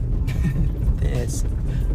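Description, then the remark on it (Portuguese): A Celta car's engine runs roughly, its low rumble stuttering and uneven as it misfires, with brief voices murmuring over the steady loud drone. “Opa! Tá falhando, hein?”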